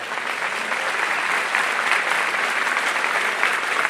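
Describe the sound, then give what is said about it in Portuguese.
Loud, sustained applause from an audience, a dense steady crackle of many hands clapping at once with no break for the whole stretch. “Vamos aplaudir ele aí bem forte.”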